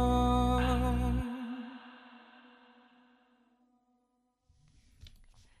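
A Vietnamese pop song played on the radio programme Chuyển động Hà Nội reaches its final chord: the full band cuts off after a second, leaving a held, wavering vocal note and ringing tones that slowly fade into near-silence, then a faint low rustle.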